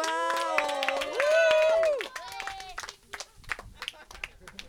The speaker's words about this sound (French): On applaudit hyper fort, on lui fait des waouh